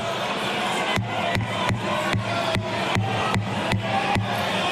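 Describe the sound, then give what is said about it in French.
A packed parliamentary chamber (hémicycle) erupts in overlapping shouts and jeers from members, a dense, loud wall of angry voices with sharp rhythmic bursts, like pounding or clapping, about every half second throughout. “Comme vous pouvez l'entendre, des cris.”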